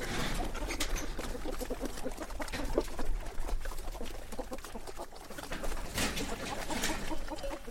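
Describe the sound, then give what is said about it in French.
Doves coo repeatedly in a steady outdoor farmyard ambience as a farm wakes in the morning, their soft rolling calls joined by faint rustling and background activity filling the morning air. “Une ferme, ça s'éveille petit à petit, les meuglements des vaches, le caquettement des poules, les canards qui couillent”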